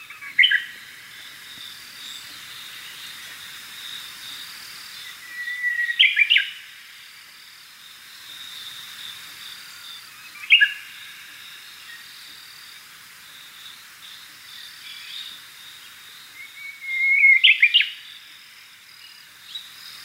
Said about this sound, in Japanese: 上島を吹き抜ける海風に乗って聞こえているウグイスの秋のさえずりこの季節にさえずっていたのも謎です